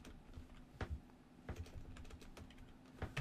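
Irregular bursts of computer keyboard typing as an IFERROR formula is typed into a spreadsheet cell, crisp clicky keystrokes tapped at an uneven pace, moderately quiet, with no one speaking.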